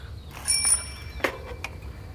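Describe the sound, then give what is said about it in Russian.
A bicycle bell gives a bright, high-pitched ring that lingers briefly, followed by a couple of short metallic clicks over a low background rumble, with no one talking. “Тело Романовского убийцы скинули в болотце, специально придавив его так, чтобы оно ненароком не всплыло раньше времени после чего покинули место преступления на велосипедах.”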